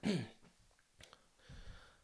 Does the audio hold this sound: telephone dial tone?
no